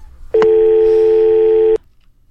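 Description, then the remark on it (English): A single steady electronic telephone tone sounds as a call ends, loud, starting with a faint click, holding an even pitch for over a second, then cutting off abruptly. “All right, so we got uh, two phone calls this evening.”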